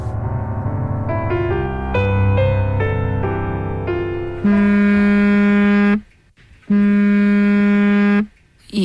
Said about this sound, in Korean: 시작은 밤늦게 걸려온 전화 한 통이었습니다.